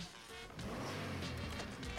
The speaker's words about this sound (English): There we are, hot wire in the car.